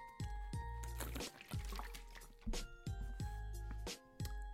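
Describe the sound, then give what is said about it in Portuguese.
Someone drinks water, taking a series of steady gulps and swallows in an even rhythm, loud and wet, with no talking. “E agora, beber mais uma água.”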